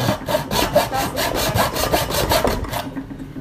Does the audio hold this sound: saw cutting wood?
yes